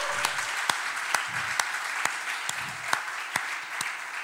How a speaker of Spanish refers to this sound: ¿Por qué no le regalas un aplauso a Jesús, iglesia? ¡Uh!